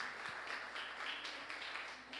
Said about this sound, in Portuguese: Você pode dar uma salva de palmas a eles aqui? Obrigado, gente.